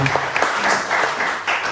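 A short burst of audience applause, many hands clapping in a dense, steady patter with scattered sharper claps, fairly loud throughout and with no one speaking.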